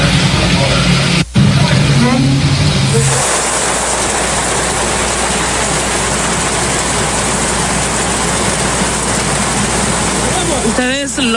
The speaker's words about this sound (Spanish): están viendo y si no lo están viendo, indudablemente lo están escuchando, ¿verdad? El sonido natural de la lluvia.